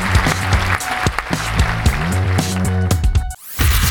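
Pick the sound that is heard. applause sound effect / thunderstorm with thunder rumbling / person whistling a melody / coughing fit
applause sound effect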